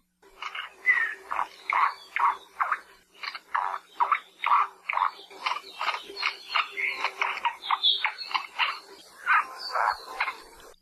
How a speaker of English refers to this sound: Like many other Hawaiian birds, the name Akohekohe may come from some of the many sounds that they make. If you use your imagination, sound a little bit like their name.